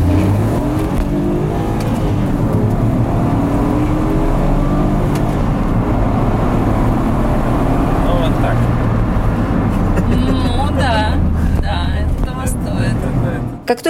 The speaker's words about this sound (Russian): только педаль газа уходит в пол, меня буквально вжимает в сиденье. Но интересно, что абсолютно не чувствуется типичной для спортивных машин жесткости. На дороге наш спортсмен шустро обгоняет соседей, ускоряется в считанные секунды